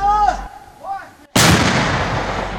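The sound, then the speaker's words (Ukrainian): A voice calls out a firing command, then a 2S1 Gvozdika self-propelled howitzer fires one shot very close by: a sudden, massive blast that roars across the whole range and rumbles away slowly. “Так зблизька звучить гвоздика.”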